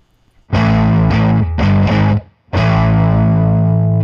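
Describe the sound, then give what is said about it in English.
A loud, heavily distorted electric guitar played through a distortion pedal on a higher gain setting, voicing set to low hump, texture setting in the middle position, plays a few sustained chords: two shorter hits followed by a longer held chord, saturated and gritty with no talking. “Here's in the middle, which is going to be louder. Yeah, that's clipping me out, so I got to turn that down.”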